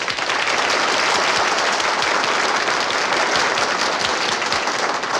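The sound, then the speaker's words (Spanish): Steady, dense applause from a crowd, many hands clapping at once in a continuous, loud wash of sound that holds level throughout without pausing or fading. “Y ustedes se preguntarán por qué el aplauso.”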